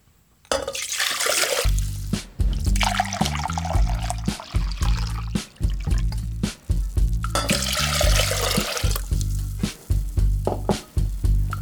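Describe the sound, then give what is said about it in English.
One cup of water pours into a non-reactive metal pan with a steady splashing rush, fairly loud, continuing for several seconds over a low humming tone underneath. “It's one cup of water.”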